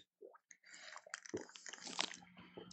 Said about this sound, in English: I got to take a sip of water. Yeah, cleanse the palate there, buddy.